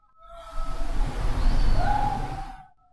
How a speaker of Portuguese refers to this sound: Meu cachorro acabou de latir. Ele não late muito, mas hoje ele tá meio uivando. Estranho.